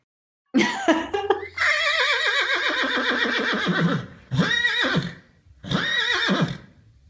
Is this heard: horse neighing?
yes